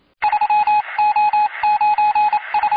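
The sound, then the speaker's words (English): A loud, rapid run of telephone keypad dialing tones forming a show bumper jingle, beeping in quick rhythmic bursts with brief gaps. No voices are heard. “And with that, cue up the bumper.”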